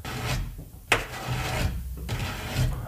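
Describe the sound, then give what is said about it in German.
Rough, rasping scratches drag across a wooden door at night in a few uneven strokes, moderately loud, with a sharper scrape partway through and no voices. “Ein Kratzen an ihrer Tür.”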